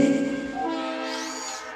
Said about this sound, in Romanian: Stați, stați că se aude ceva? Ce naiba e asta? Poftim? O garnitură de tren? Ce e la tren? De unde vine? Stați puțin? A, e trenul care a pornit în iunie 2019 din Timișoara, a ajuns la destinație.